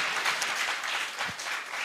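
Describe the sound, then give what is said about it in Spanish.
A church audience claps together in sustained, dense applause for the Lord during a sermon, a steady wash of many hands at moderate loudness with no voices standing out. “De un aplauso al Señor.”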